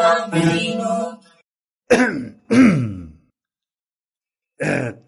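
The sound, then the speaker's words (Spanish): A person coughs and clears their throat in several separate bursts: one long rasping throat-clearing, then two short harsh coughs close together, and a final brief cough after a pause. “¿Te parece aristocrática mi tos”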